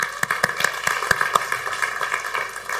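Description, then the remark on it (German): A brief burst of scattered applause, with a handful of sharp, irregular claps over a steady background hiss, fairly soft overall and with no voices. “Bitte einen kurzen Applaus für meine Schwester.”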